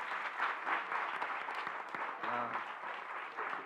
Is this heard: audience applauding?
yes